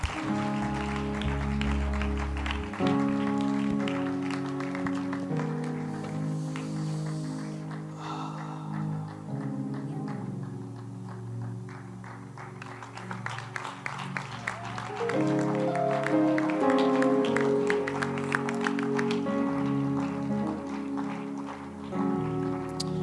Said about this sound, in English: If you are in the New Believer School, you give your life to Christ, you are in the New Believer School, please join them now yeah, clap your hands for them as they go. Please join them now.